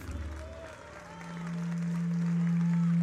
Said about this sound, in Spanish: Aplausos para os do Valdolérez.